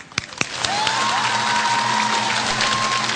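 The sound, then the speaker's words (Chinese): As actor Chen Kun is invited on stage, a couple of scattered claps quickly swell into loud, sustained applause from a large audience applauding themselves, with cheering and a thin whistle-like tone riding over the steady roar. “再把掌声送给大家自己吧。”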